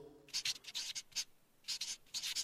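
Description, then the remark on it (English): A pencil scratches across paper in a handful of quick, uneven strokes as someone signs a name. Crisp, with short pauses between strokes and no voices. “I can write my own dang name.”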